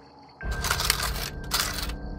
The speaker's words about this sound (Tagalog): Marahang lumapit sa garapo ng abuloy ang matandang lalaki at dumukot ng pera.